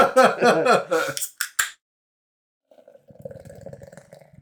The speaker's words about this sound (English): a hard pour on this mega sized glass jug we've got to drink out of.